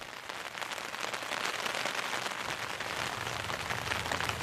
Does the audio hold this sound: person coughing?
no